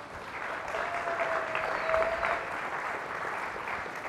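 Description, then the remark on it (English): Steady, dense applause from an audience welcoming a licensed therapist as a guest fills the space for a few seconds, a warm wash of many hands clapping at once, with a faint whistle rising briefly from the crowd. “Got some fans out there”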